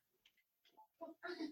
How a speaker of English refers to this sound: I hear a cat in the background. That's my yeah, that's my cat.